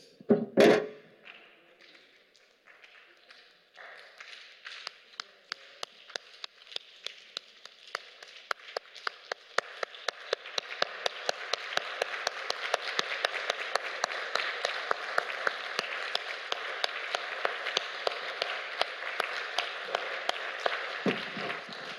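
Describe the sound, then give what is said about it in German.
An audience at a worship service imitates rain as the answer to their applause: scattered finger taps and claps start sparse, then swell into a dense, steady patter of many hands, like a downpour building and holding. “Und der, die Antwort des Himmels hört sich so an, es regnet.”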